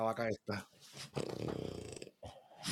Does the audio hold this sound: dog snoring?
yes